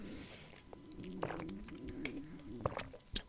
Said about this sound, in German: Gott, mein Magen knurrt. Äh, es ist jetzt 11 Uhr, äh, Quatsch, 12.07 Uhr. Es bedeutet, dass ich noch nichts gegessen habe heute.